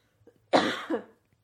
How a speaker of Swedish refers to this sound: Oj, nu måste jag hosta.